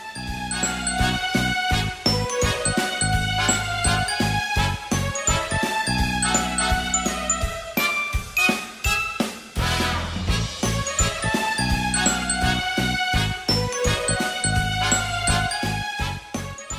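A festive Chinese New Year tune plays, bright and steady, with tinkling bell-like tones over a regular percussive beat and a full, lively melody. No voices are heard.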